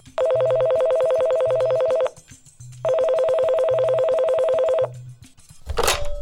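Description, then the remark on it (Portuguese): A public street payphone rings in two long, loud bursts of rapid, buzzy trilling, with a short pause between them, followed by a brief clunk like a handset being picked up. “começando com essa tua aqui que chegou no nosso telefone, no nosso orelhão da rua.”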